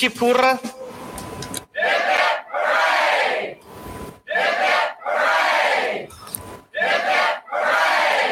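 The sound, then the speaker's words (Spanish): A loud cheering crowd sound effect roars in a series of about six surging bursts, each lasting a second or so, with brief gaps between them. “y aplausos.”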